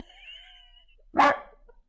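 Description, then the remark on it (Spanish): A single sharp dog bark rings out, preceded by a faint high whine, with no one talking. “el perro.”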